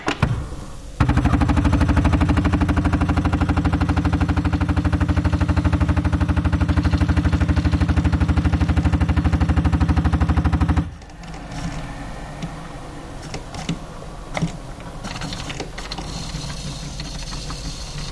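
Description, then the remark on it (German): A coffee machine brewing coffee into a large glass: its pump starts with a loud, steady rattling buzz that holds for about ten seconds, then cuts off, leaving quieter trickling, clicks and faint handling noises. “In diesem großen Glas lassen wir noch ein bisschen laufen.”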